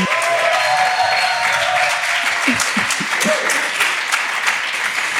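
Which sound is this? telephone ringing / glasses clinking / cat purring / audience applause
audience applause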